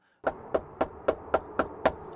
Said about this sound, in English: We knocked to see if Rogers' mother was home.